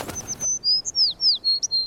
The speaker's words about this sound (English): As the anchors are coming up, because the ship's only a couple minutes away, a sparrow comes flitting back into the window.